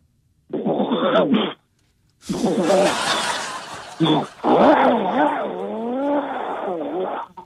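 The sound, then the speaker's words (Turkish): Someone vocally imitates a chainsaw running: a short buzzy burst, a pause, then a long, loud stretch of rasping, revving noise with rising and falling pitch, like an engine throttling up. “Motorlu testere çalışma sesi.”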